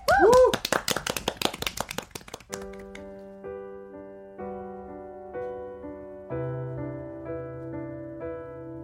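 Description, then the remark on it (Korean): A burst of quick, loud clapping with a short vocal whoop, given to call for a song, lasts about two seconds, then fades as soft, sustained musical notes begin and carry on steadily. “그럼 박수로 천에 들어볼게요.”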